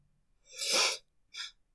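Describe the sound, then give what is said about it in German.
Two breathy sniffles from a little cat, with no talking: a longer, drawn-out sniff followed by a short, quicker one, both hissy and airy. “Schniefend nickte die kleine Katze, richtete sich und lief mit ihrem neuen Freund in das gelbe Haus.”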